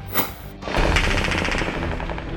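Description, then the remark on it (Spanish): Rapid bursts of automatic gunfire in Afghanistan crackle loudly, a short sharp volley followed by a sustained rattling stream of shots with no voices present. “Fue nuevamente el sonido de la metralla el que despertó a los afganos.”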